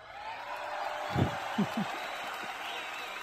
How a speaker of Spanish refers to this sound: Bueno, no puedo creerlo, increíblemente mi madre se convierte en una de las cinco personas que ha logrado tener los 800 puntos dentro del juego. Sí, le voy a poner este ahí, aplausitos